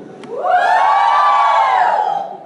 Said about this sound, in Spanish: ¿Quieren una demostración? Mujeres, un grito de júbilo.